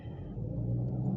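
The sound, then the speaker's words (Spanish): A car engine rumbles low and steady, its deep drone swelling slightly as it revs, with no voices over it. “De hecho, en el, último episodio que subí, este, pues bien cabrón el pinche motor.”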